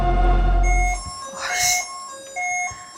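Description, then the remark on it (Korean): A car rolls into a parking lot: a heavy low engine rumble fades out after the first second while a bright electronic chime melody plays on, with no one talking. “아, 차, 차 들어오는 주차장으로 차가 들어오는 소리와 음.”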